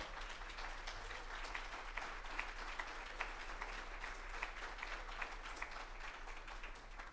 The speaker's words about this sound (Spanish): ¿Alguien le puede dar un aplauso bien fuerte al Señor?